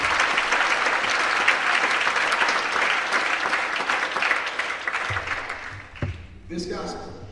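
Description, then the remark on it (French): An audience applauds steadily for the Lord in praise, a dense wash of clapping from many hands that carries on for several seconds before thinning out as voices begin to come through near the end. “Applaudir pour le Seigneur avec louange.”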